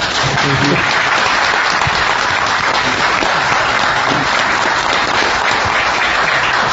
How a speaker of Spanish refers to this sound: Estamos bien acompañados además aquí en la platea, así que a los amigos que han ido llegando les pido que vayan saludando con un aplauso, por ejemplo al, al doctor Carlos Maggi, buen día.